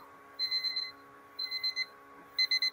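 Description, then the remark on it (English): An electronic debate timer alarm beeps in three short bursts of rapid, high-pitched pulses, fairly loud against a faint steady hum, with no voices. “Stop my timer here.”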